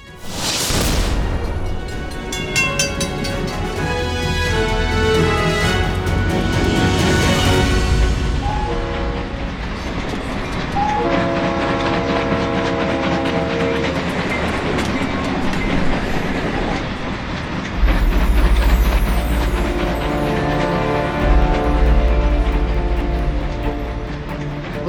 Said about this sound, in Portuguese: Nesse momento, você está com seu tanquinho do amor tão abastecido que volta para o trem e sai disparada testando seus limites nessa jornada.